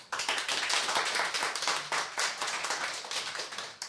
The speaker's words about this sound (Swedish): En applåd för honom.